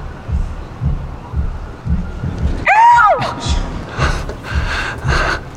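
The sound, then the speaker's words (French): A voice briefly imitates a bird's song with a short, wavering, high-pitched warble that rises and falls, followed by breathy vocal bursts over a low, rhythmic thumping background. “C'est quoi le chant de cet oiseau vais te le faire.”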